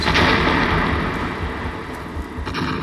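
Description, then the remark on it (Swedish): A magic portal mirror bursts apart in a loud, roaring explosion, pieces flying in all directions, a dense rumbling wall of noise with scattered crackles and debris-like bursts near the end, lasting a few seconds with no talking. “så smäller ju eh, spegeln liksom. Ehm, det far bitar av den här portalspegeln liksom åt alla håll.”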